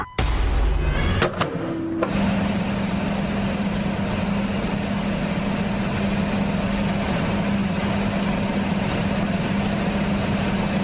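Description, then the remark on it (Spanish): An oven switches on with a brief click and clatter, then settles into a steady humming drone with a low electrical buzz that continues evenly to the end. No one speaks. “Aquellos que están dedicados a la cocina o a la repostería identifican muy bien que este es el sonido de un horno.”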